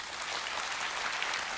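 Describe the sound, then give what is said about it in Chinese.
A church audience claps steadily, a dense wash of many hands with no pauses, applauding a church leader who is not present, fairly soft overall and sustained throughout the short stretch without any voices. “阿利路亚， 他不在我们中间，给他一个掌声吧。”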